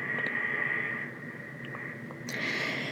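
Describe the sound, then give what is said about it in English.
Steady, hissy breathing of a weak man comes through a staticky baby monitor, swelling and fading in slow, labored cycles. Faint, with no voices present. “The noise you hear in the background is him breathing.”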